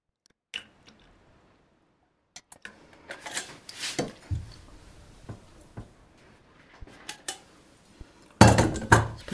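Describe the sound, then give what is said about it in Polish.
Kitchen sounds while pouring jelly dessert from a tilted pot into two dishes: scattered clinks and taps of the pot against the dishes, with stretches of wet, sloshing pouring and a louder splashy burst at the end. No one speaks. “Jeżeli przechylam garnek pod jednakowym kątem i wlewam jednakowo długo, jest szansa, że w miarę równo uda mi się nalać do obydwu naczyń.”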